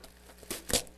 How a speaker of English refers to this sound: I mean, we got this gift right here. Should we open it? What do you think? Let's go ahead and open this gift.